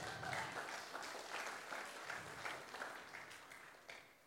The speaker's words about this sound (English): That deserves a hand clap.